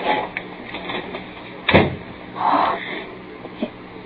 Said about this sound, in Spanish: Creo haber oído que sonó la puerta de la calle.